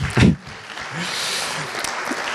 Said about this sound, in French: Donc on peut applaudir déjà très fort